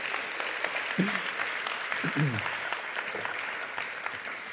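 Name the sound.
audience applause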